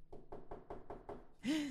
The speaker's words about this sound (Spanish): Y yo digo, no puede ser posible. ¿Quién está golpeando la puerta en este momento?